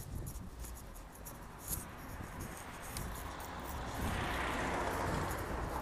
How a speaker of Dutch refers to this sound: Komt een lawaaiige auto voorbij.